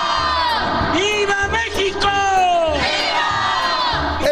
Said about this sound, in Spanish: Hasta ahora siempre el presidente de turno grita viva México y el público en el zócalo grita viva. ¡Viva México! ¡Viva!